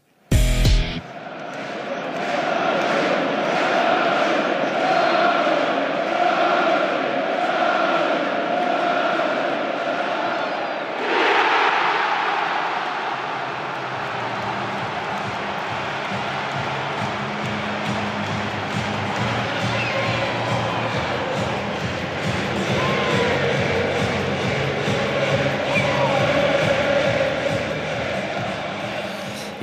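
A crowd of 64,000 in Signal Iduna Park stadium roars continuously, with a sudden surge of cheering at a penalty goal before the dense wall of voices settles into sustained, chanting noise.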